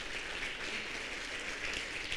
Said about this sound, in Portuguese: Quem pode dar um aplauso para esse Jesus que fez